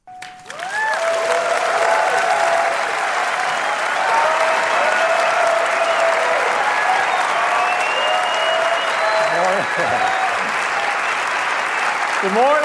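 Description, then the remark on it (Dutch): Sustained applause from a large audience at Apple's WWDC developer conference in San Francisco, a dense steady wash of clapping that starts abruptly and fills the whole stretch, with cheers and whoops rising above it throughout. “Over precies 54 dagen en dan horen we dit weer.”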